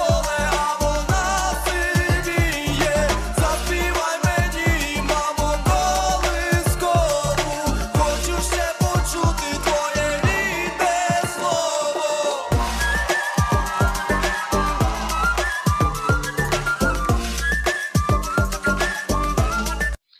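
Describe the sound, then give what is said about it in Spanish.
Ukraine's Eurovision entry plays loud and continuous, with a driving, steady beat, punchy bass hits and a bright, whistle-like melodic line over layered instruments, with no talking over it. “ya hemos terminado de escuchar la canción.”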